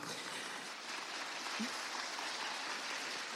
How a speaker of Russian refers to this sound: Посмотрите друг на друга, если вы себя видите. Эти аплодисменты вам, да.